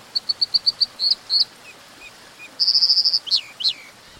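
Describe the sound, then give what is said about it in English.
An American dipper, a small riverside bird, calls alone: a run of quick, sharp high chirps, then a rapid buzzy trill and two downward-slurred whistles, over a steady background hiss. “As the river ran free again, salmon from the Pacific were able to spawn upstream for the first time in 100 years, having a dramatic impact on American dippers, lively little riverside birds.”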